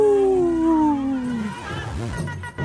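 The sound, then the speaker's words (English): Wolves howl, one long mournful note sliding gradually downward, then shorter wavering howls rising and falling over a low background, fairly loud. “Howling for Wolves, protecting wolves for future generations. Howl. Howl.”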